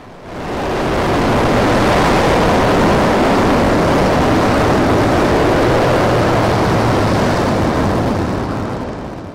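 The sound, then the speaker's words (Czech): A powerful, steady roar of rushing water swells up within the first second and pours on continuously, loud, as the Starship launch pad's water deluge system is tested, flooding the pad with water, with no voices. “Po kompletním natankování přišlo odčerpání pohoných látek a také zkouška systému, který rampu při startu zalije vodou.”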